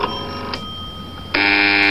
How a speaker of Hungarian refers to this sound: Ja, ilyen hangjátékokhoz ugyanúgy. A különféle csengő hangok. Az telefon.